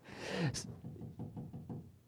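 A radon remediation worker knocks on a house door: a sharp thud, then a quick, steady series of about six moderately loud raps, slightly muffled as if heard from inside, with no voices.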